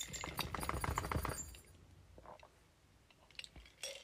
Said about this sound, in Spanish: Lo que se acaba de sacudir fue mi perro, ¿ok?